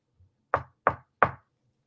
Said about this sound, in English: and they come in they do three knocks what can we knock on you have anything to knock on